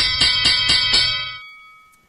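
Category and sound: signal or alarm, bell ringing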